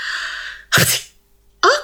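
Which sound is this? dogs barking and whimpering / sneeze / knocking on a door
sneeze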